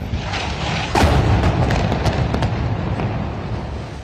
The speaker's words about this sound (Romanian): Explozia puternică.